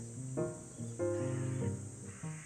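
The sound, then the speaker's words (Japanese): A crow caws three times, harsh and nasal, the middle call drawn out longer than the others, over a steady background hiss of insects. “カラス鳴いてます”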